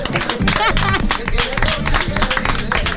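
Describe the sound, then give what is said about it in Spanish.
An audience breaks into steady applause for the show's 1000th programme, a dense crackle of many hands clapping for about three seconds, mixed with cheering voices and some tonal sound underneath. “¡Es el programa Mil! ¡Un aplauso!”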